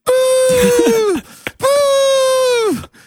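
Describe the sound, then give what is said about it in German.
A voice imitates the party horns of children at a party with two long, buzzy, steady blasts, each about a second, ending in a drooping pitch fall, loud and nasal with a brief pause between. “und den anderen Tag kamst du rein, da standen da so Kinder mit so Tröten”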